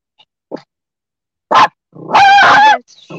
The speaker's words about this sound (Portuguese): Meu Deus do céu! Com cachorro! Filha. Cuidado com esse cachorro!